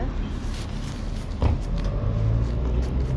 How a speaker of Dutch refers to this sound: Waar komen al die auto's ineens vandaan? Het is koopavond, hè?